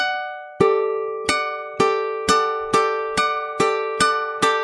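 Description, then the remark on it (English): A stringed instrument strummed upward about eight times in a steady rhythm, each bright, ringing chord struck crisply and left to decay briefly before the next, with no talking. “But um, doing the up strum makes a big difference than doing it with the with the down strum.”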